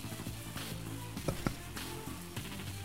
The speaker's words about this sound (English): this time he's just you know, picks up the thing, flips them. You can hear the sizzle keep going for a little bit longer. He puts it back down.